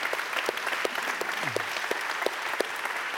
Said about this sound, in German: Dein Applaus. Danke.